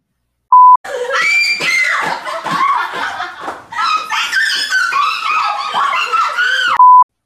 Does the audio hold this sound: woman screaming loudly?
yes